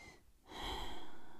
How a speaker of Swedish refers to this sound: Så om du bara andas och bara så här.